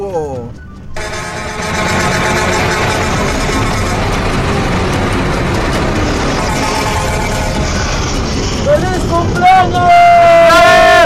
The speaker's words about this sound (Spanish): Vamos con el bocinazo